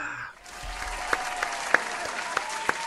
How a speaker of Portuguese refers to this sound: Palmas, palmas.